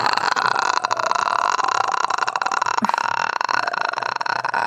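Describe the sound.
A person imitates a ghostly, guttural croak: a sustained, loud rattling rasp made of rapid clicking pulses in the throat, continuing unbroken for several seconds with no other talk.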